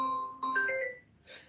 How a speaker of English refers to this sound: No, find my device is ringing for some reason. I, I, didn't activate that. I'm sorry for the loud noise